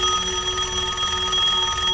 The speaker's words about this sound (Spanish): pues en la madrugada, el sonido del teléfono de la planta baja de la casa despertó a la madre de la pequeña